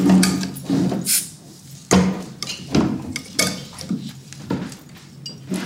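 A bottle is worked open with the metal side of a bottle opener, with a glass ready: a series of sharp metallic clicks and clanks at irregular intervals, with glass and metal handling noise in between and no talking.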